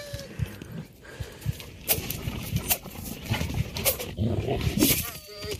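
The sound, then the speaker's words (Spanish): A wild dog growls low and menacingly in a video game as the player fights wild dogs, a rough rumbling snarl that keeps going beneath a person talking over the game sounds. “Cuando gruñe el perro es cuando tú sabes que lo tienes que matar, miren.”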